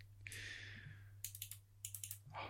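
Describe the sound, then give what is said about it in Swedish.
Crisp clicking of mechanical keyboard switches in two quick bursts of rapid keystrokes, fairly loud, over a steady low electrical hum with no talking. “Det återstår att se om det är jobbigt när man skriver på många tangenter samtidigt med det klicket”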